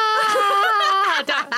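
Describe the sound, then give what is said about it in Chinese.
A voice imitates a low-pitched scream: one loud, strained, sustained cry that wavers, then slides downward and breaks into a couple of short, ragged bursts at the end. “可是，哦、可是你又要放低那个频率， 你那个听起来比较像便秘， 不然你们试试看， 低沉尖叫啊。”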